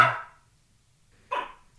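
A dog growls in two short, gruff bursts separated by a second of quiet, each fairly loud, as it looks at a Christmas tree set up in a living room, with no one talking.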